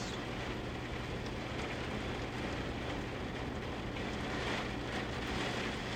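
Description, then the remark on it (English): Steady rain falls continuously, a dense hiss with scattered patter of drops, even in loudness throughout, with no voices present. “Thank you, Lord, for the rain.”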